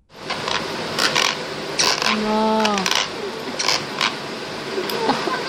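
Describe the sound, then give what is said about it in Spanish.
Teeth grinding during sleep, recorded at night around 3 a.m.: a run of gritty, irregular scraping and clicking bursts, with a brief squeaky creak partway through, resembling a creaking bed. “Escuchen nada más lo que hace el ruido con sus dientes.”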